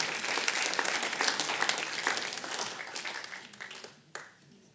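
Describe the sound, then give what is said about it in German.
A crowd applauds for the Lord Jesus with dense, steady clapping that gradually thins and fades, ending with a few scattered claps and a brief final burst before quieting. “Applaus für unseren Herrn Jesus.”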